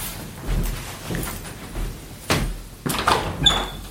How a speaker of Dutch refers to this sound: de deur van de keuken dicht.